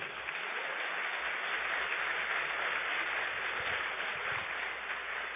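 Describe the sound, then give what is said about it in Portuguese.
An audience applauds the Lord: sustained, dense clapping that holds steady at an even level for several seconds, with no voices standing out above it. “Pode aplaudir o Senhor.”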